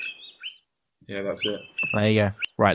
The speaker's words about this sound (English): Well, that, that's the sound that the honey guides make when they want to lead people to honey which is uh-huh. pretty cool.